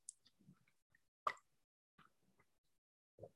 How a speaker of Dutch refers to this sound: En dan neem ik even een slokje water bij.